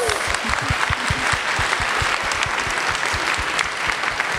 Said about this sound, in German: Herzlichen Glückwunsch. Applaus.